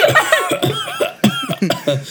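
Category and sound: vocal imitation, imitated wheezing cough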